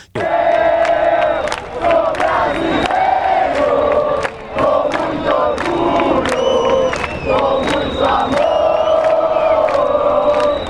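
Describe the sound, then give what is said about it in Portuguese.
A large crowd chants a war cry in unison in the street during demonstrations, loud, rhythmic shouted phrases repeating steadily with sharp accented beats, sustained for about ten seconds. “Ouça agora o grito de guerra entoado nas ruas durante as manifestações.”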